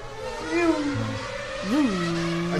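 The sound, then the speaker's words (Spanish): A voice mimics a racing car engine with droning, revving hums that rise and swoop in pitch, ending in a sustained buzzing tone, moderately loud. “Eh, eh, puede hacer eh, ruido de, carro.”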